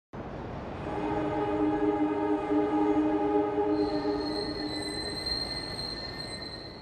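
An S-Bahn commuter train at the station in Starnberg on a sunny weekend grinds along under steady rumbling noise, first with low droning tones, then a thin, high-pitched wheel squeal that sets in midway and holds to the end, loud.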